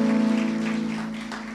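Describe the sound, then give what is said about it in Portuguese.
A church crowd in Boca Raton applauds with dense, steady clapping that forms a crackling wash, over a sustained low keyboard-like tone, tapering slightly toward the end. No one speaks. “Então, ó, eu se eu fosse vocês aplaudia mais aí, gente.”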